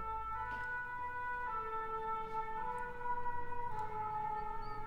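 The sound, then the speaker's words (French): A fire engine siren wails in a steady two-tone pattern, its pitch stepping between high and low notes every second or so, loud and continuous with traffic rumble underneath. “les pompiers, attendez ça Je pense qu'ils vont rester un petit peu.”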